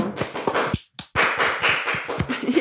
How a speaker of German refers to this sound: Applauso!